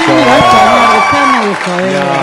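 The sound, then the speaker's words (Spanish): A crowd claps and cheers to welcome a guest arriving on the show Caretas, steady and fairly loud throughout, with several voices calling out over the applause. “pero bueno, con aplausos ese, por favor, le damos la bienvenida”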